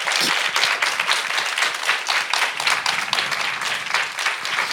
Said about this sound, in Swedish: En applåd.